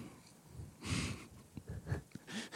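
A stifled, held-back sneeze comes through as muffled breathy bursts and snorting puffs of air, with a second breathy gust near the end and no talking.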